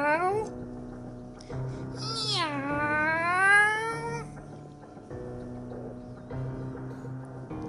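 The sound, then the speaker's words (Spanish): A cat of unusual pink and fuchsia colour lets out a short mew, then a long, drawn-out meow that rises and falls in pitch, loud, over a low steady background hum. “De repente aparece en el espacio un gato de color inusual, rosado con fucsia, y se sienta a charlar con nosotros.”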